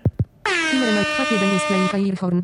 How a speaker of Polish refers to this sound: Mogę odtwarzać jakieś jingle.